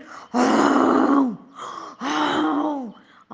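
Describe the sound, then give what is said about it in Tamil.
A person imitates the lion cub Simba roaring at a hunter, with two drawn-out, throaty growls, the first longer and louder, each sliding down in pitch at the end. Loud, with no talking. “அப்படின்னு வேடனை பார்த்து கர்ஜிச்சான் சிம்பாவோட கர்ஜனையை கேட்டு வேடம் பயந்து ஓடிட்டான்”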